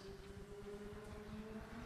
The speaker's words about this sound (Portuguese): Estava a ver que uma moto queria entrar cá dentro.